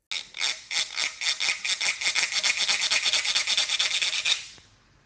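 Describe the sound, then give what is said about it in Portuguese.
A train chugs in a fast, steady rhythm of hissing, rasping bursts, fairly loud, then fades out at the end. No voices. “Isso, o som do trem.”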